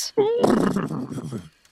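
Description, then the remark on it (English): A person imitates the whinny of the horse Angus, startled and rearing back, with their voice: a loud, wavering cry that rises into a harsh, noisy bray for over a second, then cuts off. “having a small creature leap out at you from like h- being hidden in the tall grass is very unsettling, and he continues to bray and stomp”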